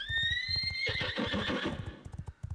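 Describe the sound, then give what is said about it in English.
A horse lets out a loud, shrill whinny that breaks into a rough, breathy tail, while a steady clip-clop of hooves keeps a brisk rhythm underneath the whole time. “I think at the end of that, there's just a very large whinny from the horse, and the pace picks up”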